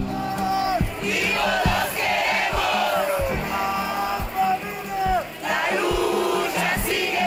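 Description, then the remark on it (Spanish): A large protest crowd of thousands marching in Mexico City, demanding the missing Ayotzinapa students be found alive, chants and yells in unison, voices rising and falling in loud rhythmic bursts with shouted calls, a steady dense roar of many people marching. “En la Ciudad de México marchan miles de personas.”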